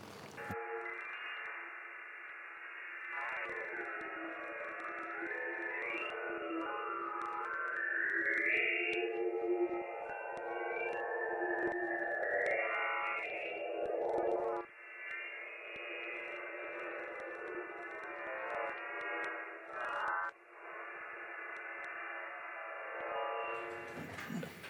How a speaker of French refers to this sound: voilà, donc le, type de son est particulier en fait. Euh, pour les spécialistes, vous reconnaîtrez, c'est des sons sinusoïdaux, c'est-à-dire c'est des fréquences pures.